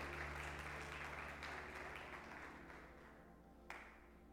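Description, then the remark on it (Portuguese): A church audience applauds the Lord with steady, dense clapping that slowly fades over a few seconds, a low hum underneath and one sharp clap near the end. “Pode aplaudir o Senhor por essa alegria que eu e você vamos ter no Senhor Jesus?”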